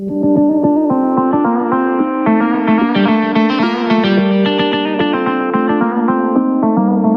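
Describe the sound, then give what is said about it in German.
A hip-hop song intro beat with layered, heavily processed synth tones over a steady low pulse, loud and continuous throughout, with no vocals yet. “Und das erste Lied ist von meinem Cousin … und dem … geschrieben worden.”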